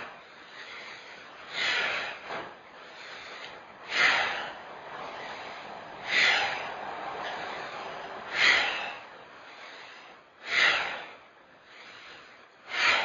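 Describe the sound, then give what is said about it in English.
Slow, rhythmic breathing in a Ping Chi breathing exercise (inhale, make a fist, exhale), with airy, snorting inhales and exhales repeating about every two seconds, each swelling then fading, with no talking. “Inhale, fist, exhale.”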